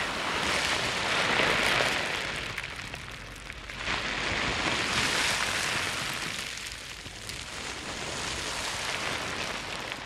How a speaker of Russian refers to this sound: И, кстати, это не звуки океана, это звуки пластика, который команда Less Plastic собрала на одном пляже, чтобы мы с вами услышали, как может звучать океан для будущих поколений.